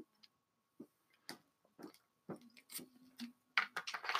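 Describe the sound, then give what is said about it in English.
Someone sips a drink, with a string of quiet, irregular slurps, swallows and small mouth clicks, ending in a slightly louder rustling burst. No one speaks. “I'm going to take a sip of my drink.”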